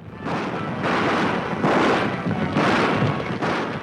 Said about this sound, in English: That sound from the 1933 remake of the original 1925 The Thundering Herd